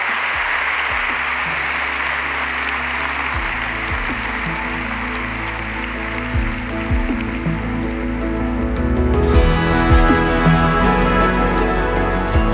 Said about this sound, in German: nochmal einen ganz, ganz fetten Applaus für Bernadette Lange